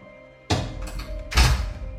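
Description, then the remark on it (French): A door is opened by a youth-justice educator with a sharp thunk and rattle of the latch, followed a moment later by a heavier wooden clunk, over a low steady hum. “L'éducatrice ouvre la porte.”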